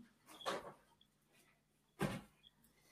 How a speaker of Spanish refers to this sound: Voy a abrirle la puerta a Scooby porque estáis diciéndomelo.